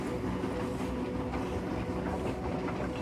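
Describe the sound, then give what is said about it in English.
A steady rumble of a train car rolling along rails at a steady speed on a long journey, with a continuous low drone and faint rhythmic rattling throughout, no voices present. “You can see out both sides of this train car, making for the most beautiful views you've ever seen.”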